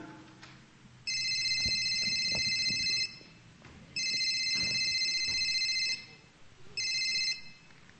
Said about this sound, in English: Sana may biglang tumawag sa cellphone ko para ma-distract.